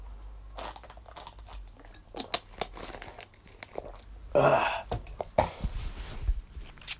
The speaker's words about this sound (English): Sorry, I have to take a sip of water. My voice is gone.